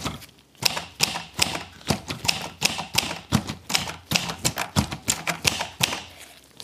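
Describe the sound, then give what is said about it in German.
A mechanical typewriter clacks steadily, its sharp keystrokes landing in quick, slightly uneven bursts for several seconds with no one speaking. “wenn man schreibt, man will das jetzt hier und man will das im Hier und Jetzt schreiben, dann schreibt man das und dann ist es plötzlich da”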